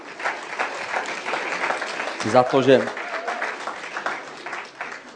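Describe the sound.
Steady audience applause at an ICF evening, thanking the bass guitarist: a dense crackle of many hands clapping throughout at an even, fairly loud level, with a short burst of speech rising briefly over it midway.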